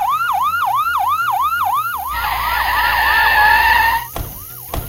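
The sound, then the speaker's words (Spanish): Loud sirens of several police motorcycles wail in fast repeating sweeps as they arrive in the yard of a house, then shift to a denser, layered blare as the sirens overlap with engine rumble, cutting out abruptly near the end before one last sweep. “Las sirenas de varias motos de policía se escuchan con mucha fuerza.”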